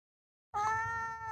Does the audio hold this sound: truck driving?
no